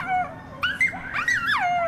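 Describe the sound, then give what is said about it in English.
High, wavering yips and whining howls from coyotes yipping and barking at each other, several overlapping calls rising and falling in pitch over a couple of seconds, clear with no talking. “They yip and bark at each other.”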